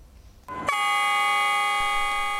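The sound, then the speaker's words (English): A loud, sustained freight train horn blast starts abruptly and holds steady with a rich, harmonic drone as the first China-Europe cargo train from Shanghai to Munich departs the Minhang District Freight Transportation Station in Shanghai, with no voices. “The Shanghai Express first freight train bound for Munich left the station today.”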